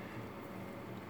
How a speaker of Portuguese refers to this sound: Isso, isso aqui é o som do, do avião passando, né? O avião quase caindo. É, e como a gente sim. mora perto, o avião passou meio que no mesmo lugar.